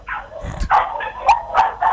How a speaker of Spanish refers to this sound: El ruido de perros, ¿no? En el fondo.